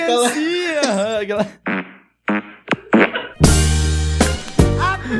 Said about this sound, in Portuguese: Olha que peido bem triste, cara. Mano, é inacreditável. Os caras têm um grupo pra soltar peido, mano.